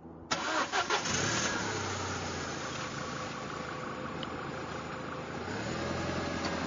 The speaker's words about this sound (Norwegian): tok bilen sin og kjørte av gårde og skulle fri på Haukeli fjell.